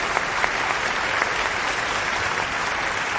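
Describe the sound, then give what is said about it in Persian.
Steady applause from an audience invited to cheer a man who returned lost property to its owner, many hands clapping in a dense continuous wash at even loudness, sustained with no voices on top. “برای تشویق بفرمایید آفرین آفرین”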